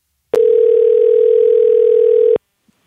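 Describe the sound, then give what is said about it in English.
A single steady telephone tone hums loud and clear for about two seconds as a call is placed to a friend, starting and stopping abruptly, with no voices around it. “So now it's time for a segment of the podcast called Phone a Friend, where we do just that phone a friend.”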